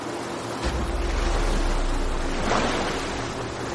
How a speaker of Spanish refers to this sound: Las olas cubren los salientes más bajos y la pared es demasiado empinada.